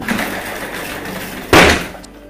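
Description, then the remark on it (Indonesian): A single loud, sharp crash like a chair being thrown or slammed down inside a classroom, ringing briefly before fading, after a stretch of low, steady background noise. “tiba-tiba dia mendengar ada sesuatu seperti kursi yang sedang dilempar, dibanting, atau ditendangi dari dalam kelas.”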